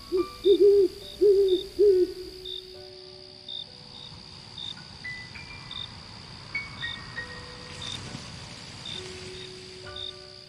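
A nighttime countryside scene at a farmhouse almost entirely surrounded by trees: steady cricket chirping throughout, a soft wind rushing low through the trees beneath, and a few owl hoots near the start. No voices, just calm outdoor ambience.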